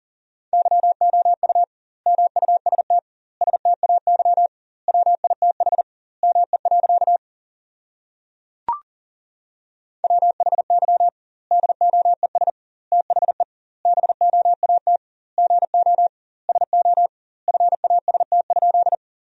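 Fast Morse code at 40 words per minute with double word spacing, sending sentences made from the top 500 words: a single steady mid-pitched tone keyed in rapid dots and dashes, grouped into words with brief pauses and one longer silent gap broken by a click.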